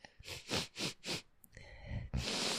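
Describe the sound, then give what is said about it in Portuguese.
A run of four quick sniffles right into the microphone, followed by a longer, noisier snuffling breath through the nose. “Faz favor de assar esse nariz pra você não ficar é. fungando no microfone.”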